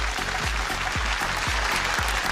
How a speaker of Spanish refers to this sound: Te despedimos con este aplauso de este bloque